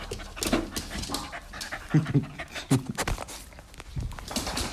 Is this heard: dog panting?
yes